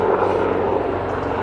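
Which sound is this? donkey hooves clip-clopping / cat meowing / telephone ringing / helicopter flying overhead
helicopter flying overhead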